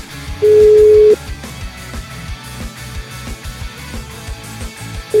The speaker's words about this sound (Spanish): Bueno, tenemos el teléfono. Vamos a marcarle